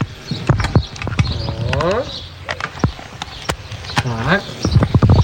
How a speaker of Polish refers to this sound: A ja pana nie słyszę, bo tak czasami jest, że jak człowiek y, porozmawia i y, się zagada na antenie, to wtedy pewien kabel nie dochodzi do innego kabla i ja właśnie teraz, y, jak państwo słyszą, zrobię, żeby ten kabel działał.